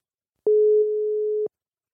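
A single telephone ringback tone while calling Focus Filmtheater, a cinema in Arnhem: one steady, mid-pitched beep lasting about a second, with silence before and after.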